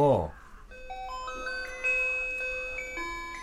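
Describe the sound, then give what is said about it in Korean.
An electronic school bell chimes a short melody of clear, sustained tones stepping upward one after another, steady and fairly loud, after a brief low thump at the start. “진호와 상근이 핸드폰을 미처 제자리에 놓기도 전에 종이 울렸고 진호는 얼떨결에 자신의 책상 서랍에 핸드폰을 넣었다.”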